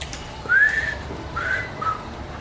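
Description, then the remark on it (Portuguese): Someone whistles a short melodic phrase: a long rising-and-falling note followed by two shorter notes, clear and moderately loud with no talking. “Aí eu assobio.”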